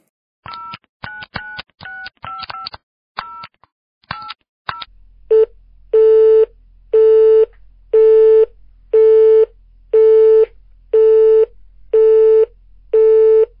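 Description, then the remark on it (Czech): A quick burst of touch-tone dialing beeps, then a phone call that fails to connect: a loud busy tone pulsing about ten times in an even on-off rhythm, with no voices. “No tak Simče se dovolat nemůžeme, má asi napilno, není nivu, protože má miminko, tak ji nebudeme otravovat.”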